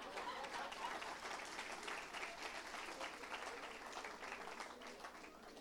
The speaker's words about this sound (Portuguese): Foi uma criança que caiu e achei que era alguém aplaudindo. Então vamos aplaudir Jesus.